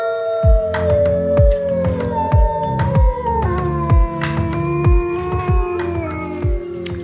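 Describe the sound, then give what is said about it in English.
Wolves howl in long, drawn-out, wavering tones that overlap and slowly slide in pitch, set over a steady, pounding drumbeat that thumps roughly twice a second throughout. “Let's talk about some wolves.”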